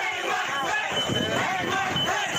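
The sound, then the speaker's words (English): A large angry mob shouts and chants together, some calling for the head of Vice President Mike Pence, a dense wall of overlapping voices with rhythmic swells, loud and continuous throughout. “Some in the mob could be heard calling for the vice president's head.”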